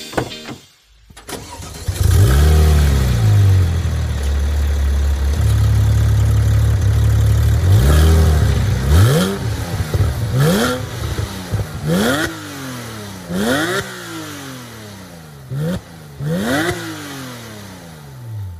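car engine starting

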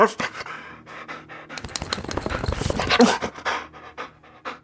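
dog panting

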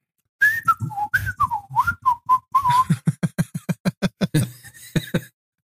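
person whistling a tune

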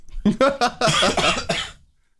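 blowing nose

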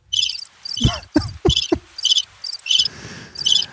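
chirping crickets

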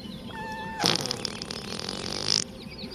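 fart

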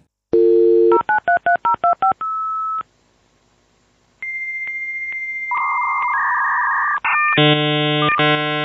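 telephone dialing tones

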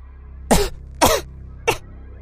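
woman coughing

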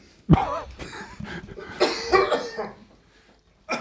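coughing

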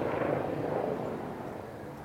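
helicopter flying overhead

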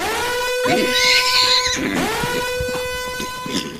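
horse whinny sound effect

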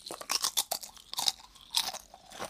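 crunching potato chips

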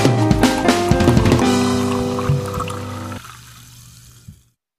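fizzy lemonade being poured

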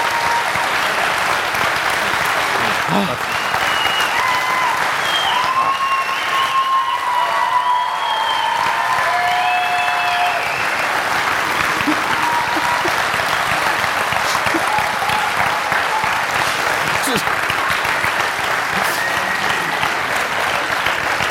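audience applauding

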